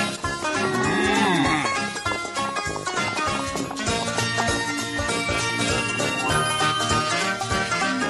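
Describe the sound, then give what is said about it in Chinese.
In a Mickey Mouse cartoon, voices imitate cows with drawn-out, sliding moos after eight cows are brought ashore, strongest in the first couple of seconds, over loud, busy music that continues throughout. “大家一起学牛叫。哞！”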